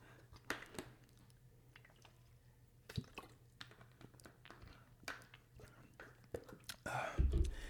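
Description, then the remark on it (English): Someone drinks water, with quiet sips, wet mouth clicks and swallows spaced irregularly over a low steady hum, ending in a brief louder rustle. “Hold on, let me get this, get this water real fast.”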